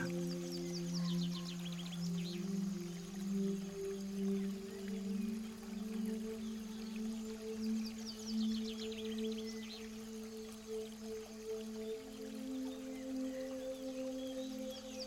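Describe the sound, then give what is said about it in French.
Continuous flowing water hisses steadily beneath a sustained low, humming drone, with brief high chirps twice; no one speaks. “Laissez votre paysage intérieur se déployer en cherchant d'où provient le son de l'eau qui coule.”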